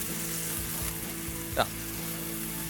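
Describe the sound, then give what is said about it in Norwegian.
Steady crackling sizzle of potatoes frying in a pan during the first round of frying, a dense continuous hiss, with one brief sharper pop or clink partway through. “nå er vi på første runde med steking av potetene.”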